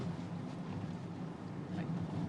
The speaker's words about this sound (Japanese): そしてちょっとガタガタ道で、えー、あれですけど、はい